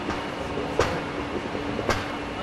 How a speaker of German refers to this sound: Da drinnen passieren jetzt Dampfschläge, weil zu wenig Kühlwasser am Kondensator ist. Und diese Dampfschläge, die würden dann natürlich irgendwann einmal unter Umständen zum Bruch führen.